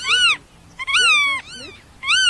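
A black-tailed godwit calls several times in quick succession, loud, each note a nasal, slightly wavering cry with short gaps between, and no other sounds around it.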